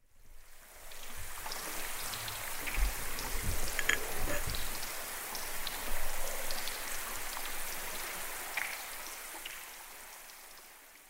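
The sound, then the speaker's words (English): A melting iceberg crackles and fizzes underwater as countless tiny air bubbles pop in a dense, steady patter, with sharper clicks scattered throughout and no voices. The pops are air pockets, trapped and compressed inside glacier ice over years to millennia, being released. “That's the sound of an iceberg melting, Lewis informed us.”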